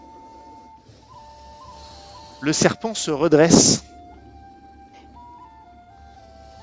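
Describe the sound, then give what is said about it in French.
A thin, breathy flute, played by someone facing a snake while slowly backing away, plays a slow melody of a few stepping notes throughout, fairly soft in the background, while a voice speaks briefly over it midway. “vous entendez ça. Et vous voyez Gauvin devant le serpent avec sa flûte”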